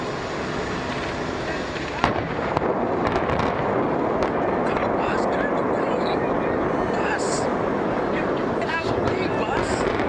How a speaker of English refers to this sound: it's the best place for you to watch this famous implosion take place. And so I'm going to show it to you now. This is the Weather Channel's setup. It was broadcast live to, to hundreds of thousands of people, and this is what you would have seen.